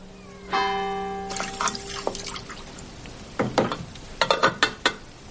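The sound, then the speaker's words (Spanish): Dry spaghetti is dropped into a pot of boiling water, with rattles, a few sharp splashes and bubbling crackles, after a brief steady tonal hum at the start. No one speaks. “Silvia saca unos espaguetis de un mueble y los coloca en una olla llena de agua hirviendo”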